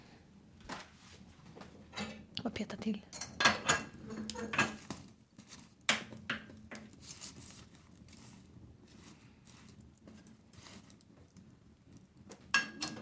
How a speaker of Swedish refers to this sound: Bra brasa. Ska vi sätta på en kastrull då? Det gör vi.